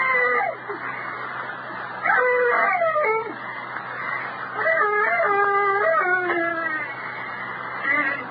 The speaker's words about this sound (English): That is screaming woman.